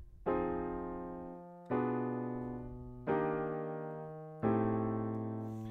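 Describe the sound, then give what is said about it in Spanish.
A ii-V-I chord progression played as the main loop of a whole song: four sustained chords struck one after another, each ringing out and slowly fading before the next, clear with no voices. “Eh, este segundo quinto luego se tomará para el loop principal de toda la canción, que realmente es un segundo quinto primero, y que suena así.”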